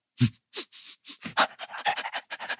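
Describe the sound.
A person pretending to be a dog imitates a dog panting, producing a quick series of breathy, rhythmic huffs that speed up toward the end, with no other talk.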